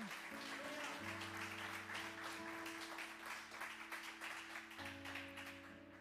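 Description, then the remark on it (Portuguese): An audience claps for the Lord steadily for several seconds, a dense crackling wash of many hands, loud and sustained, with sustained keyboard chords humming underneath. “Aplauda o Senhor então.”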